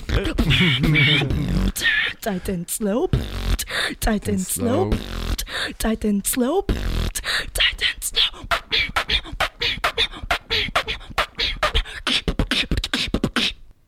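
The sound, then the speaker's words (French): A solo beatbox freestyle by a female beatbox artist: a voice fires off rapid, punchy percussive bursts and clicks in a driving rhythm, mixed with sung, warbling vocal tones early on, loud throughout. “Euh, c'était la première artiste beatbox qu'on a reçue au sein de l'émission.”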